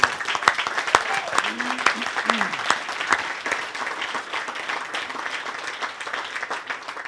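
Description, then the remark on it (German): Sustained applause from an audience, dense steady clapping throughout with a few louder claps near the start and some faint voices or calls mixed in. “Ich weiß nicht warum, aber diesen Applaus hoffentlich, den wir so laut jetzt machen, den hört er irgendwann und den müsst ihr ihm dann mitgeben.”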